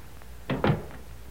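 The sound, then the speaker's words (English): A door swings shut onto a porch with two quick, solid thumps, a lighter impact followed by a heavier latching bang, against a quiet background. “I'll close the door.”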